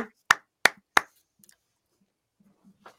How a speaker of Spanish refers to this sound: El aplauso para él. Seguro que sí.